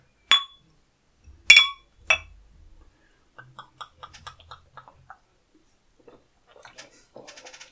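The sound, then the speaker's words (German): Three bright, ringing clinks of 0.33-liter longneck glass beer bottles knocking together in a toast, loud, followed by softer scattered taps and rattles of bottles being handled. “Aber die 0,33 Liter Longneck Bierflasche ist die vom Geräusch, vom Trinkgeräusch hm. schönste Flasche, oder?”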